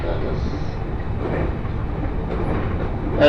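A five-car commuter train on the Joban Line in Japan, running from Sendai toward Hamayoshida, rumbles steadily along the rails, a dense low-frequency roar with faint rhythmic clatter, heard from inside the carriage with a brief louder thump at the end.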